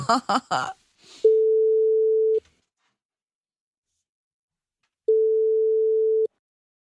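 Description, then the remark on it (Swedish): A brief burst of voices, then a telephone ringback tone while calling a man: two steady, clear beeps of about a second each, separated by a long silent pause. “Vi ringer honom och ja. frågar.”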